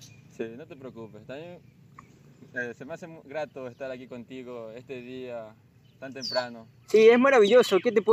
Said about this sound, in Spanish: Escuchar a los pájaros cantar, ver la naturaleza. Estamos aquí en Puerto Viejo, en la Rotonda.